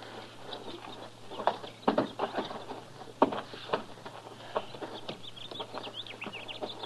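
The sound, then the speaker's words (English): Horse hooves clip-clop in an uneven rhythm of sharp knocks, some loud, others softer, with faint bird chirps and a low steady hum in the background. “Get off that horse, fella.”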